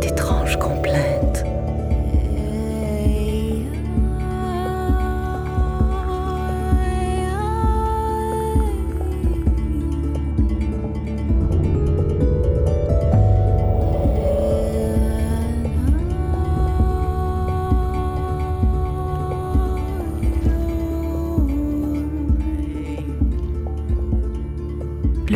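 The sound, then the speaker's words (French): A female bear gives deep, hoarse throaty sounds that drone steadily for the whole stretch and vibrate in her chest. The low voice is rich with buzzing overtones and slow sliding pitch changes, fairly loud, with no other sounds. “Rassemblant tout ce qui lui reste d'énergie, la femelle ours pousse des sons rauques qui bientôt commencent à vibrer dans sa poitrine.”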